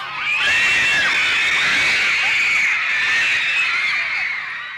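A dense crowd of high-pitched screaming, many shrill voices overlapping into a continuous frenzied roar that stays loud and sustained throughout, with no clear speech.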